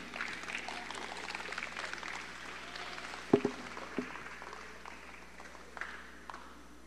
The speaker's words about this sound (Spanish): Denles un aplauso bien fuerte, especialmente los que están allá en la última fila.